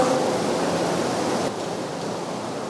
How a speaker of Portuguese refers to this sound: Gente, está tá caindo água. Aparece o dilúvio aqui.